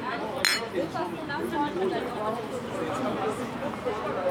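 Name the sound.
glasses clinking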